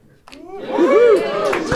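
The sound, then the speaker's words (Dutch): An audience breaks into applause, a wash of clapping that swells after a short pause and holds steady, with voices cheering and whooping over it, in response to the speaker announcing that they are going to begin. “Krijg je daarvoor applaus, omdat ik zeg dat we gaan beginnen?”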